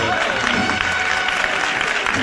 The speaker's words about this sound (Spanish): Así aplaude el público que se abarrota, que se agolpa en la plaza de San Marcos. Esa es la situación en la Plaza de San Marcos en el Señor de la Sentencia.